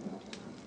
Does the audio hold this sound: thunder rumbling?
yes